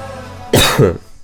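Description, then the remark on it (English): A sharp burst of coughing: two quick, rough hacks in succession, loud and throaty, from someone who has just got something caught in the throat, with quiet room noise before and after. “it sounds like I'm about to cry, but I just got something in my throat.”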